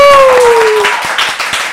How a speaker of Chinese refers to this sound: 我们录节目到现在没有自备音效，现场还有那个旁边有人帮你拍手的，果然就是人气王。